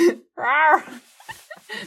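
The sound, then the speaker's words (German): A person briefly imitates a tiger's growl, one short, rising-and-falling voiced roar, followed by a few softer breathy vocal sounds and a quiet trailing noise. “Mach den Tiger nochmal bitte.”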